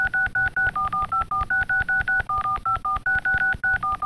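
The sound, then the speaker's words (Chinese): A mobile phone call ringtone melody, heard in a piece of music after a chant section: rapid, evenly spaced keypad-style beeps, around seventeen in four seconds. Their pitch steps up and down like a tune over a soft low pulse, with no talking. “哦， 然后接到这个哎，手机铃声，噔噔噔噔噔弟妹嘛， 你用的很像， 我用的很，我完全一模一样啊。”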